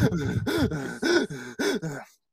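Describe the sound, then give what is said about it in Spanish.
A voice imitates a patient's rapid, labored breathing (tachypnea): about five quick, strained gasping breaths in a steady rhythm, fairly loud, ending abruptly into silence. “una, respiración, una, una taquimnea”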